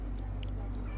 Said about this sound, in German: Ihr hört im Hintergrund übrigens den Trecker, der uns hier rauffahren würde.